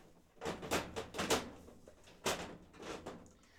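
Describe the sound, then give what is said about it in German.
A heavy drawer grinds and rumbles as it slides, with several scraping pushes over a few seconds, moderately loud, no voices. “Ähm, oh Gott, diese schwere Schublade hier.”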